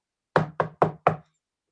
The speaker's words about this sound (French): quelqu'un d'autre frappe à sa porte.